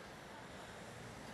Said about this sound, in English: It's a gorgeous, gorgeous sunny day. The water's flat. You can hear a little bit of waves lapping in the background.